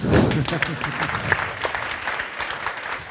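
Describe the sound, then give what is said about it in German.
A crowd claps steadily, a dense patter of many hands that holds at a moderate level throughout, with a brief burst of voice at the start; the audience welcoming an author as a panel guest. “Dürft auch klatschen.”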